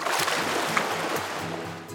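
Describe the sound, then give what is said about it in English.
Water sloshes and splashes steadily as a kayaker pulls a paddle through it, a continuous wash with small repeated surges and gurgles, no voices present. “Kayaks sit right on top of the water, and kayakers use a paddle to move themselves through the water.”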